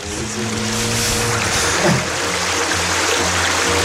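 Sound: flowing water nature sounds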